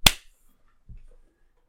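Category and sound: crowd, hands clapping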